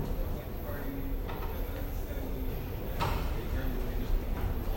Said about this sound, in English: So the train is now approaching.